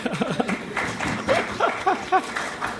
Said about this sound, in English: I don't think I've been at a discussion before where the, uh, or where the panel is applauded before the answer.